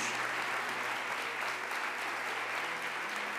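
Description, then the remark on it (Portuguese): A church audience claps steadily together for Jesus after three testimonies, a dense, continuous wash of applause at moderate volume with no voices standing out. “Dá para aplaudir Jesus por esses três testemunhos.”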